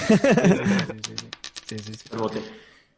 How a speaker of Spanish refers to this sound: Mete una de esas moneditas que suenan